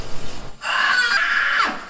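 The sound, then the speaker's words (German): A person lets out a single piercing, high-pitched scream imitating Oscar from Die Blechtrommel (The Tin Drum), who shatters glass with his voice, during a virtual reality quiz game. The shrill, steady note holds for about a second before sliding down and breaking off. “Nachdem Oscar beschließt, sein Wachstum einzustellen, stellte er fest, dass er mit seiner Stimme Glas zersingen kann.”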